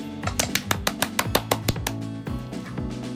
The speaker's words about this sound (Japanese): 拍手聞こえました。うん、若干聞こえましたよ。